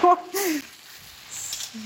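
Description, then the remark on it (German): Mushrooms sizzle in a frying pan, a steady crackling hiss that carries through the whole moment, with a brief voice sounding at the start before the frying continues on its own. “Champignons fliegen hier gerade hoch.”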